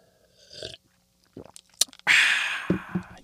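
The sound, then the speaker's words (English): Mouth sounds of someone sipping and swallowing water: a few short wet slurps and gulps, followed by a longer, louder breathy exhale. No one speaks. “I'm going to need a sip of water for this.”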